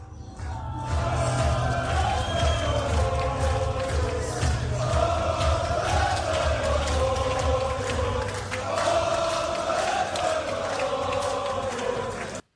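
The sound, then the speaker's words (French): A crowd of wrestling fans at a Banger Zone Wrestling show roars and chants loudly and continuously, voices swelling in rhythmic waves for about twelve seconds before cutting off abruptly. “Et quelques sons, donc on avait, pour la faire simple, un show de la Banger Zone Wrestling consiste en, déjà pour commencer tout de même, une foule de passionnés prêts à donner de la voix pendant 4 heures.”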